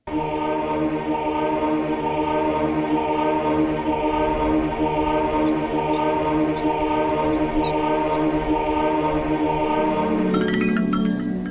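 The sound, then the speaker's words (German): A video game monk's conversion sound effect, played when the monk converts an enemy unit to the player's own side: a steady, rich, droning tone layered with many harmonics, with faint chiming accents midway and a change in texture near the end. “die ich nenne es einfach mal so Mönchsbekehrung”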